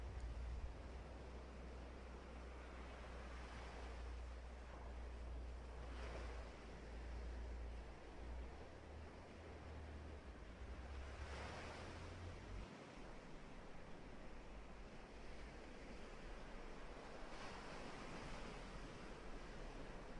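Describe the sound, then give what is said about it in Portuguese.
Ocean waves wash in and out in a steady, broad hiss, with gentle swells rising every few seconds over a deep low rumble. No voices, just continuous surf. “Neste momento, foque apenas em sua respiração e nas ondas que vêm e que vão.”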